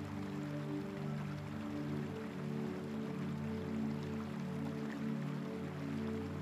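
Continuous rushing of water flowing in a small river, steady and fairly soft, with a sustained low tonal drone humming underneath throughout.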